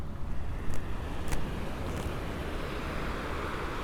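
Steady, broad rushing noise of ocean surf with a low, rumbling wash, continuous rather than distinct individual breakers, heard outdoors with some wind buffeting the microphone and no voices.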